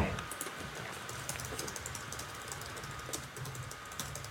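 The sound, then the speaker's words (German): Rapid, steady typing on a computer keyboard, with dense clicking keystrokes continuing throughout, fairly loud, with no voices. “Man hört mich laut tippen, oder?”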